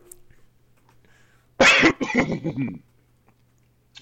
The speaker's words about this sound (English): Hold on, I got a cough.